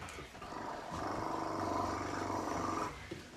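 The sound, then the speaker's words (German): A large twin-rotor military transport helicopter's heavy rotor thumping and engine roar swell in overhead and hold loud for a few seconds, a rapid pulsing chop over a deep rumble, before easing slightly. “Über ihm sieht er einen grossen Helikopter. Einen mit zwei Rotorblättern. Einen ganz grossen, ein Transporthelikopter.”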